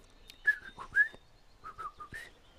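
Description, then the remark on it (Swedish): A great tit's whistling call: a short series of clear, sliding whistled notes, two brighter ones followed by a softer run of three or four, with no talking. “Nu hör vi talgoxens hälsningsvissling.”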